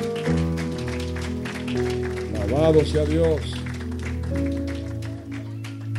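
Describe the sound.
A crowd claps steadily throughout, the dense patter of applause blending with sustained musical tones while a voice speaks briefly over it.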